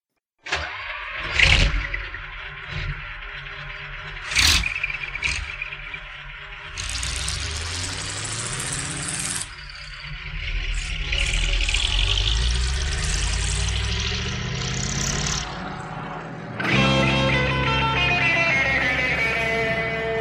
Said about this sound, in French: Alors je vais passer, je, vais, je vais quand même en passer un petit morceau très court, mais donc c'est le début de la chanson. On entend vraiment le, bruit du camion en introduction avant le démarrage de la musique.